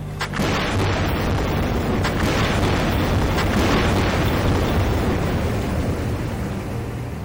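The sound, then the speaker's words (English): Deep, rumbling underwater blasts from seismic survey air guns in the ocean, fired all at once by boats carrying about 30 or 40 air guns to locate drilling spots for fossil fuels on the ocean floor; a continuous loud low-frequency roar with several sharp bursts near the start, no voices. “So you'll have boats with about 30 or 40 air guns that'll all go off at once.”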